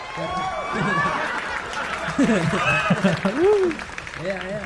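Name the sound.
applause sound effect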